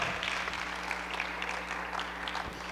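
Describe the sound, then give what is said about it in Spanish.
A church audience applauds steadily in the afternoon, clapping for God at the pastor's urging, a dense wash of many hands clapping at an even level for a few seconds, with no voices standing out above it. “Tú crees que tienes un Dios poderoso, aplaude al Dios poderoso que tienes, no al pastor.”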